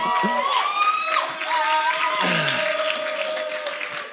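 An audience claps steadily for a few seconds, applauding a person who pulled a lever, with whoops and whistles rising above the applause before it settles into a continuous, fairly loud patter.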